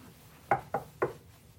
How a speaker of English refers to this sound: he's stopped, he's standing, and yet he is continuously knocking. It's present tense. He's knocking.